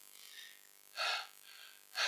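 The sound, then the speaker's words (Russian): A voice imitates the labored, gasping breathing of a person in a stuffy, crushing crowd of about 400 people at flight ticket registration: two sharp, loud breaths about a second apart, over a faint steady hiss with no talking. “Все давят, духота, дышать очень трудно.”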